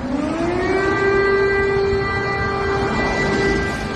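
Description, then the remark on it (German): An air raid siren in Kyiv wails on a sustained tone that rises slightly and then holds steady, layered with harmonics over a constant low rumble of background noise. No one speaks. “Die Videos vom Luftschutzalarm in Kiew zumindest scheinen glaubhaft.”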